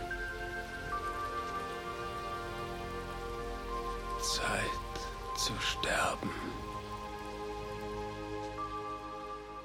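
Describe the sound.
Steady rain hisses throughout, a constant even patter beneath soft, sustained synthesizer tones, while a man speaks a few brief words in the middle.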